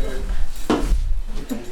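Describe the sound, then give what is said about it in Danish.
A heavy, thick cleaver bought from China is picked up and handled, with two distinct clunks and scrapes about a second apart over a low, steady background hum. “Det er en hakkerkniv, der er købt fra Kina. Den er godt tyk, den er tung.”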